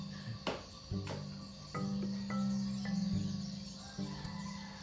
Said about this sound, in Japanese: 鳥めっちゃ起きてきたの分かるこれ。